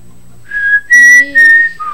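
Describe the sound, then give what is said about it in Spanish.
A person whistles an eerie call imitating the particular whistle of a cursed legendary being: a rising note, then two loud sustained high tones with a brief gap, ending on a lower short note. No talking. “Entonces él anda así y silba, tiene un silbido ahí particular y si usted lo escucha, tiene que verlo.”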